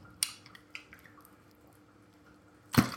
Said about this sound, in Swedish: Måste dricka lite vatten på den grejen alltså.